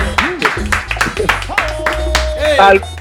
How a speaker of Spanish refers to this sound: Aplauso para bebé.